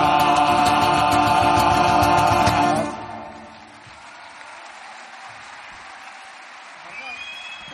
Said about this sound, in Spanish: Bueno, ha sido un placer, de verdad. Muchísimas gracias por sus aplausos y nos vamos, como siempre, con nuestro tema habitual.